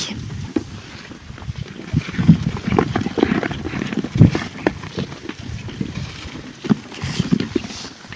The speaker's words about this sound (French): ça craque parce que c'est du grain, il y a du blé, de l'avoine et du pois et de la veste.